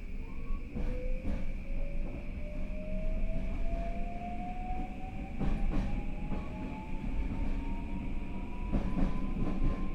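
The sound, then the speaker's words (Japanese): A JR Kyushu 821 series electric train, a local train bound for Hakata running from Futsukaichi, pulls away about 2 minutes late and runs steadily, its motor whine rising smoothly in pitch over a continuous rumble of wheels, with occasional rhythmic clunks over rail joints, heard from inside. “JR九州 821系電車 二日市から博多まで”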